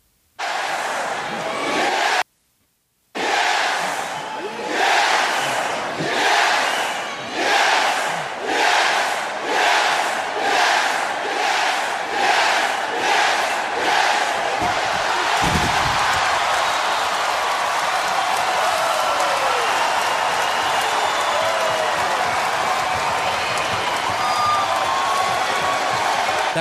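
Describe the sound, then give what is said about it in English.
A huge wrestling arena crowd roars as Daniel Bryan and Bray Wyatt exchange blows, breaking into a loud rhythmic chant with evenly spaced shouts for several seconds, then settling into a sustained, dense wall of cheering and noise. “And when when they start exchanging blows, it is without a doubt super electric.”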